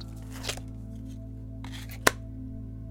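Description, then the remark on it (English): Tarot cards being shuffled: two brief, soft papery swishes, then one sharp crisp snap as a card is set down, all over a low steady hum with no voices. “Let us consult the cards, and they will tell us what you wish to know.”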